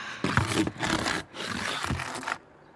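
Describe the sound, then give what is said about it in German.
An empty cardboard box being crushed flat for the paper recycling bin: loud, crackling crunches and scraping in about three surges with dull thumps underneath, then the noise stops abruptly. No one speaks. “Die mache ich klein für die Papiertonne. Komisches Geräusch, oder?”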